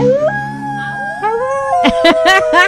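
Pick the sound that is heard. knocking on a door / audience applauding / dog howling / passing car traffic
dog howling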